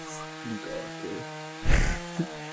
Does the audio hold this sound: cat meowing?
no